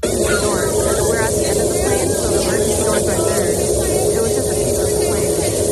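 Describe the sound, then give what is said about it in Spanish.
A loud, unbroken roar of rushing wind and engine noise fills the cabin of a Boeing 737 MAX 9 that lost a window and part of its fuselage 35 minutes after takeoff, before an emergency landing at Portland airport, with a low steady hum beneath and faint, indistinct voices half-buried in the din. “Lo hizo en el aeropuerto de Portland tan solo 35 minutos después de despegar por perder una ventana y parte de su fuselaje.”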